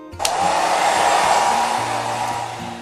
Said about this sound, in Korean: 드디어 드라이를 하고 마무리 단계로 넘어갔죠.